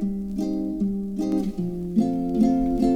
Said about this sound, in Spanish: se pusieron juntos y sacaron esta canción